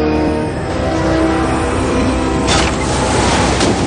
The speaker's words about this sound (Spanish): Por la noche, en un dormitorio en penumbra, las puertas de un balcón se abren de par en par azotadas por el fuerte viento que proviene del exterior.